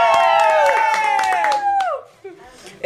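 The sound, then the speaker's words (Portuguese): An audience claps and cheers, with quick sharp claps under sustained, falling whoops and voices for about two seconds before the noise drops away abruptly. “Nós temos plateia.”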